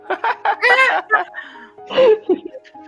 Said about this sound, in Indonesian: kita kasih sound efek ketawa